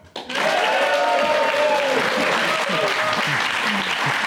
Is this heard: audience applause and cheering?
yes